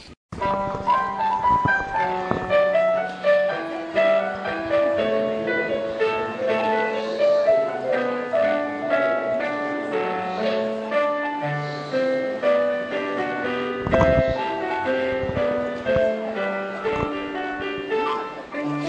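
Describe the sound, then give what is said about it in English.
A cat pads across piano keys, producing a steady, meandering stream of overlapping notes with occasional lower thumps. No one speaks; the playing fills the whole stretch. “What you're hearing right now is the musical stylings of Nora the Cat”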